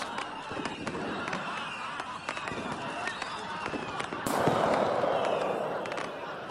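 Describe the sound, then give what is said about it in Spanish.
A rapid, irregular string of firecrackers packed into the tail of Clavileño, set alight, pops and crackles, with a denser, louder burst of explosions near the end over a steady hiss of smoke and debris. “estaban a punto de reventar de risa y queriendo rematar la aparatosa aventura, le prendieron fuego a la cola de Clavileño, que al estar repleto de cohetes tronadores explotó y voló por los aires, enviando al suelo a sus dos jinetes medio chamuscados.”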